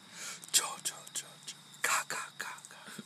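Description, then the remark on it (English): A quiet voice whispers an imitation of a horror-movie killer's sound: a rapid string of short, breathy hissing bursts repeated over a few seconds. “Well, That's what I think like horror sounds like.”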